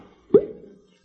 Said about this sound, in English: That's okay. I brought some with me in my satchel. I think I'll open a bottle and take a slug now.